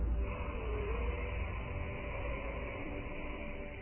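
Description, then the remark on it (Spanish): A long, steady ocean breath drawn through a throat narrowed as if to swallow, making a continuous soft rasping hiss from the throat rather than the nose, sustained evenly for several seconds with no talking. “El sonido no es del aire saliendo por la nariz, es de la garganta que se estrecha como si tú ahí fueras a tragar o como si la apretaras un poquito.”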